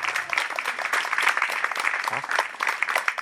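A few seconds of steady applause from a small group for the person who cooked lunch that day: dense overlapping hand claps at an even, fairly loud level with no talking over them.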